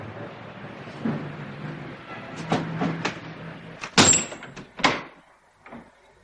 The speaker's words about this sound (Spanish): Tras eso cierra la ventana.